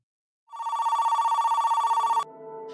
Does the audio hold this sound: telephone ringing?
yes